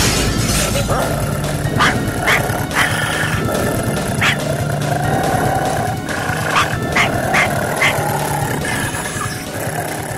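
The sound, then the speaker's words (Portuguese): Two Dobermans, a Rottweiler and a Pinscher, dead and furious zombie dogs, bark and snarl as they break the glass and burst into a room, with crashing, shattering glass and sharp bursts repeating over a loud, dense, chaotic background that never lets up. “No exato instante em que dois Dobermans, um Rottweiler e um Pinscher, todos tão mortos e furiosos quanto os jantadores de Léo, quebraram o vidro e entraram na sala sem pedir licença.”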